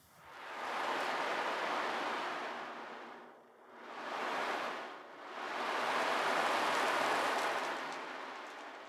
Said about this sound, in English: the next sound I would like to show you it's created by Ocean Drum and I'm pretty sure you know what sound it will be. So it's the sound of waves. It's very soothing and calming sound.